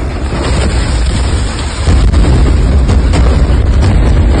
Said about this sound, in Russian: Авиаудар по стоянке машин скорой помощи на территории больницы Аль-Авда на севере сектора Газа. То, что как это выглядит, это э, одно дело, но здесь нужно э, еще со звуком это все слушать.